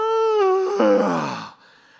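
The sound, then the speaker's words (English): A single loud, drawn-out yawn performed by a voice, starting as a steady high tone, then breaking into a breathy, groaning exhale before trailing off into near silence. “and he's like, you could hear a pin drop after the yawn.”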